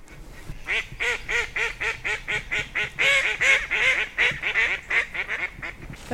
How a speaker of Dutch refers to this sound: Ja, en die eendjes brengen mij terug naar mijn kindertijd.